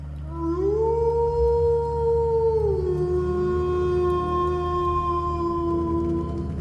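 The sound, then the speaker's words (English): A single long howl from a large wolf pursuing a van, loud, swelling upward and holding a steady mournful pitch for several seconds over a low, constant rumble. “In this case, she took the form of a large and frightening wolf to pursue the van.”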